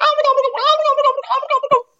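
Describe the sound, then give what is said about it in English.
A person's voice imitates an eastern wild turkey gobble: a loud, rapid rattling warble lasting about two seconds, then breaking off abruptly into silence. “these birds, these easterns gobble. When they gobble, it's for a reason.”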